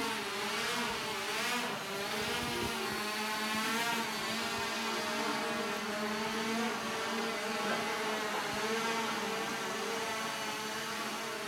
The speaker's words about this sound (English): And I'm going to switch gears here a little bit and show you what, what we mean by drones. Now, what you're going to see in the cameras are a bunch of things, but we're going to be flying two drones on two sides of the room.